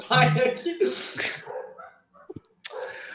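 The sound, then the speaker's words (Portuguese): A female neighbor's dog, which keeps barking nonstop, barks in a few sharp bursts, mixed with other voices and indoor noise, then things go quiet before a brief sound returns. “Não, é que essa, esse cu desse cachorro, ele fica latindo, sem parar.”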